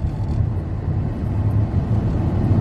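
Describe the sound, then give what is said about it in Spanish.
Steady low rumble of road traffic, cars passing a police officer with a continuous engine and tire drone that swells slightly toward the end; no voices. “este reportaje se me hizo interesante porque pasan los carros y al oficial le pita algo ¡pip!”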